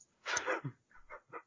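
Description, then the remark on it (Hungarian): A single loud sneeze at a microphone bursts out, followed by three short, softer snuffling sounds in quick succession. “Próbáltam mindig lábbal a mikrofontól tüsszenteni, de nem sikerült elég kárkot tennem.”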